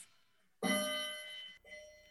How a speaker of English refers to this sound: There's the clock. I love it.